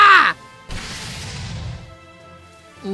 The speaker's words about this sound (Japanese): 何ですか今の音は敵の攻撃を避けようとして浅瀬に乗り上げたみたい